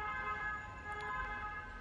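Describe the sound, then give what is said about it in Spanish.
An ambulance siren wails steadily with layered tonal harmonics over low rumbling traffic noise, loud, filling the whole short stretch with no talking. “perdón por la ambulancia, tenía que ser así.”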